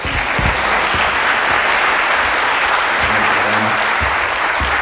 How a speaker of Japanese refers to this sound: これラジオあの世界中で聞こえるラジオですからね皆さんの拍手で世界中の人が元気になるわけでございますから積極的にねやっていただきたいんですけども